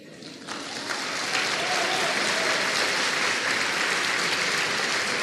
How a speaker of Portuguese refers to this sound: Vamos aplaudir, amados.